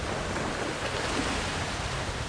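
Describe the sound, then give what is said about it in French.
Waves lash against old wooden dock planks in a steady, unbroken rush of water and spray, moderately loud, with no distinct individual slaps and no voices. “Il rattacha les boutons de son manteau fasciné par les vagues qui fouettaient les vieilles planches du quai avant d'être aspiré vers le large.”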